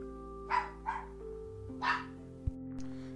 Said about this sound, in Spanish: Ah, pinche perro que está ladrando.